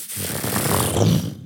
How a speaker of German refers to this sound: Dann hört ihr, wie, äh, wie Fallgitter runtergelassen werden.